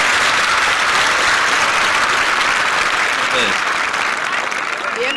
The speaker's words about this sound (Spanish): Una noticia alentadora, tanto a nivel nacional como internacional, es la producción de la vacuna Sputnik en territorio argentino. Aplausos. notición, aplausos. aplauso. ahí, aplauso. Aplausos ahí.